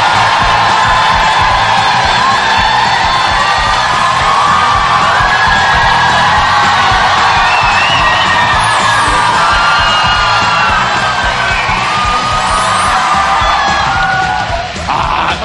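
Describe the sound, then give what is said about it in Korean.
A loud, sustained crowd roar of cheering, whooping and yelling fills the whole stretch, with high excited shouts rising above a dense wash of voices and no letup. “정도 환호성이면은”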